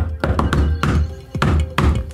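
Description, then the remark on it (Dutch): Crisp knocks on a wooden door tap out the familiar 'shave and a haircut' rhythm: a quick run of raps, a short pause, then two final knocks, fairly loud. “Apparently, the name of said knock is the shave and a haircut.”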